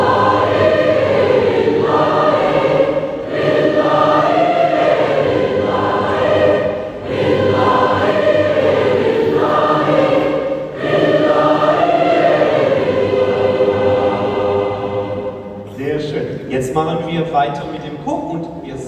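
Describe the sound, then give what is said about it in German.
Thousands of people sing a sustained choral refrain in four voices with the Basler Gimmichör in the St. Jakobshalle, loud and resonant, phrase after phrase with brief breaths between, before the singing fades into a busier, scattered texture near the end. “Die Töne aus der Kehle von tausenden Leuten in vier Stimmen hat die St. Jakobshalle ordentlich zum Vibrieren gebracht und das Gebäude mit Klang gefüllt.”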